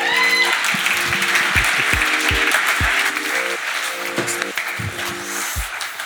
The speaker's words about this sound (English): I'm, I'm really grateful to have him with us this morning. Will you give him a, a round of applause and welcome him?